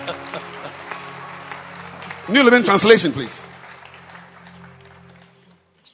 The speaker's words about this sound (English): you can clap your hands for this man.